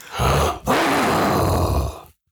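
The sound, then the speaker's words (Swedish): A person imitates a lion's roar using a toilet paper tube, with two loud, rough, growling bursts, a short break between them, the second long and gravelly before cutting off abruptly. “Lejon.”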